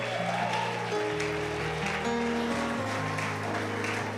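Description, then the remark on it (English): A crowd claps steadily and continuously as an offering of applause to God during a church sermon, over sustained organ or keyboard chords, the applause forming a dense, even wash of sound throughout with no voices. “give god a clap offer”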